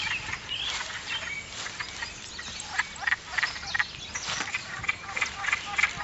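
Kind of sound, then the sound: animal, wood frogs calling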